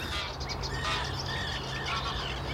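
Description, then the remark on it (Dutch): A Cetti's warbler sings outdoors in Park Lingezegen, a run of bright, rapid chirping notes repeating over steady low background rumble, clear. “Heb je ondertussen de chatties zanger weer”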